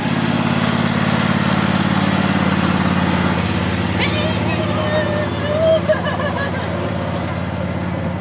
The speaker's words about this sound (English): Here comes a train take a little breather for just for a second.